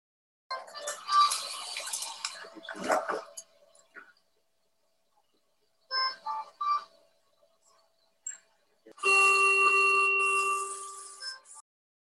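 A hospital machine beeps and sounds electronic alert tones in a few separate bursts during a nurse's assessment of a patient in 2015, with short pulses midway and a longer, steady, fairly loud tone near the end.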